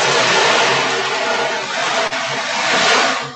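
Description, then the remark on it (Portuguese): An ocean drum's beads roll in a steady, loud rushing wash imitating the sound of the sea, swelling and easing gently over a few seconds, with no one speaking. “Por exemplo, você pega aqui um, esse aqui, o tambor oceânico, né? que faz o som do mar.”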